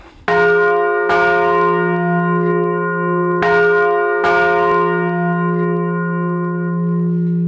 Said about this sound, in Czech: Tak a teď už jsme se dostali na úplný vrcholek zvoničky. Jsou tady opravdu dva zvony, jeden větší, jeden menší. Tak ten menší, to je ten starší z roku 1464, tady ten větší zvon z roku 1611.